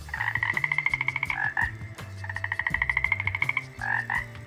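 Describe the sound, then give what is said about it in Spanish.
A toad gives two long, rapid pulsing croak trills in a classroom, each ending in a brief rasping flourish, loud, over a low droning hum. “Todos en clase giraron para ver dónde estaba el sapo.”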